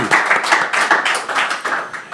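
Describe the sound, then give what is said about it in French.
A short burst of audience applause, many hands clapping together in a dense, steady patter at moderate loudness, with no voices over it. “Ça, c'est bon, ça, on peut l'applaudir.”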